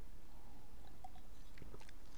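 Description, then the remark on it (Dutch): A person takes a quiet sip of water: soft wet mouth clicks and a small swallow over a low steady background hum, with no talking. “Even een slokje water, want ja, ik heb de ramen dicht en het is warm.”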